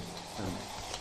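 Steady scraping and whisking as Albanian coffee is stirred briskly to whip up foam, a continuous gritty swish that swells briefly in the middle, with no voices.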